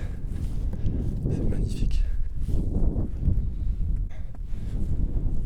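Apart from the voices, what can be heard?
footsteps walking on snow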